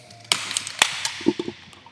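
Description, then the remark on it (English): Several beer cans crack open in quick succession at National Corvette Museum Motorsports Park, each a sharp metallic snap followed by a fizzing hiss, with a few softer clicks and taps trailing after. No one speaks. “Uh, cracking some fresh ones here at National Corvette Museum Motorsports Park.”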